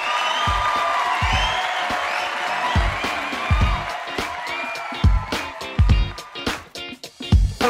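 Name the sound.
applause and cheering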